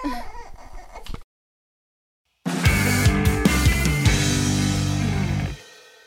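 A baby cries, starting with softer whimpering, breaking off into a brief silence, then returning as a loud, sustained wail that fades at the end. No one speaks.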